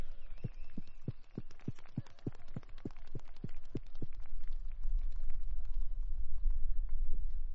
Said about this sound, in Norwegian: Så en stor, stor applaus til alle kidsa som har vært med her og kjørt i dag.